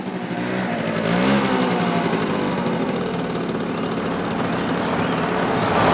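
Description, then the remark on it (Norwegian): A bright red moped with stars on it races at full speed across a playground, its engine buzzing loudly and steadily at high revs, with a brief pitch swoop early on and no voices. “En knallrød moped med stjerner på kom kjørende i full fart over lekeplassen rett mot Billis og Bollos.”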